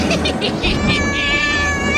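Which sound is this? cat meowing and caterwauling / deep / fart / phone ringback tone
cat meowing and caterwauling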